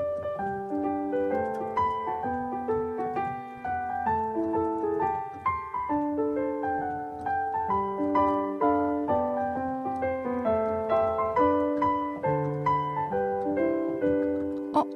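The hymn 'Behold, Our Happy Home' (보아라 즐거운 우리 집) played on a keyboard, steady chords under a simple tune, moderately loud, continuing without pause and with no one talking.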